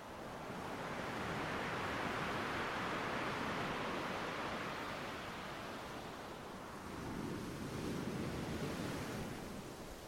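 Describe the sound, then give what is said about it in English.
Ocean waves roll in steadily with a broad, hissing wash that swells, eases slightly, then builds again in a slow surge. No voices, just continuous surf filling the space. “You watched it for minutes subconsciously matching your breathing with the rhythms of the water.”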